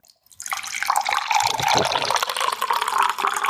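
A dark pink fizzy drink is poured, a steady liquid splash with a dense, crackling fizz of tiny bubbles that starts abruptly and continues evenly for a few seconds, with no talking.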